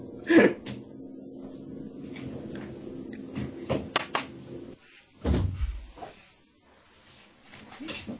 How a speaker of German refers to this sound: Oh, mein Fenster zu, Moment.